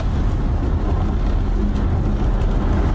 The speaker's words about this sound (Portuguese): não tô entendendo nada desse carro aqui atrás, viu, família? Verdade mesmo, já tá estranho já.